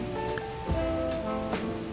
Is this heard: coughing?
no